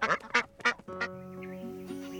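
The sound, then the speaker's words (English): A duck quacks four times in quick, uneven succession, loud, before sustained musical tones rise and carry on underneath. “Now, let's travel to a different country and hear about a rebel who is making people laugh, sing, and celebrate ducks.”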